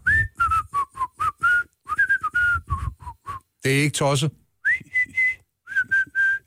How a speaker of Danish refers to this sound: Jeg er pisse dårlig til at fløjte. Du har lidt mere ægte fløjt. Ja, ja der er knap så meget falsk luft.